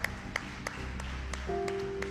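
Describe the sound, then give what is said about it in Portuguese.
An audience applauds the word of God after a prayer, clapping in a steady, even rhythm, about three beats a second, over sustained low keyboard chords that shift to a brighter held note near the end. “Aplauda mais forte a palavra.”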